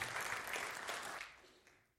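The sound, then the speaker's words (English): A church audience breaks into dense, steady applause, many hands clapping at once in a bright, crackling wash that gradually fades away over two seconds, clapping for the news that the money for a well to be drilled in Ghana has been raised. “That, you can clap for that.”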